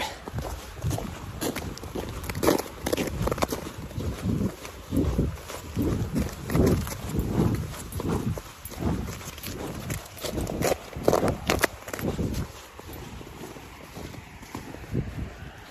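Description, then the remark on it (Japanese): Steady crunching footsteps on snow and ice, a brisk continuous rhythm of steps with some scuffing, over light wind noise on the microphone and no talking, at 7 a.m. on a Sunday morning on the Toyohira River embankment. “前へ前へぐいぐいぐいぐいえー、歩いてます。はい。まあ、雪のとことか氷のところとか、いろいろあるんで、いろんな音がありますので。”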